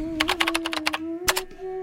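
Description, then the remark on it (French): Quick computer keyboard typing: a rapid flurry of clicky keystrokes, a brief pause, then a couple more taps, all over a steady low electrical hum. “ce, ce, bruit de clavier t'indique que je vais plutôt pas t'orienter vers un livre, mais plutôt vers un, article de blog, un article de mon blog”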